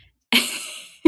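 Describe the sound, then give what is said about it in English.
Lenny the dog makes a brief noise in the background: a single breathy, hissy burst of just over half a second, then the start of another sound cuts in. No one speaks. “just to explain, that was the dog in the background.”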